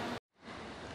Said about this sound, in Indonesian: ini suara hujan yeah, kedengeran ya, ya?